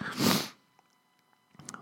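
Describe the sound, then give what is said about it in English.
One loud, forceful sniff after snorting cocaine, a harsh breathy rush of air lasting about half a second, then near silence with a few faint clicks and a soft rustle at the end. “Just did some cocaine, as you can tell by that sniff.”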